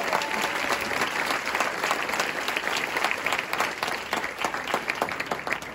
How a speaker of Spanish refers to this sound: ¿Qué y le damos un fuerte aplauso al Señor en esta mañana?